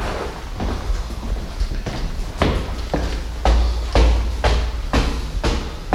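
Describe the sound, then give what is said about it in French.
A damaged apartment door is worked open and shut, producing a series of loud knocks and thuds about once a second over a constant low rumble, with brief scraping in between. “Comme vous voyez, ça commence. Avec la porte. Avec la porte. Qui est tout abîmée encore.”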